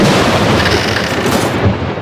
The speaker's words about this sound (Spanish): La tormenta Juana destrozando tu antena suena así.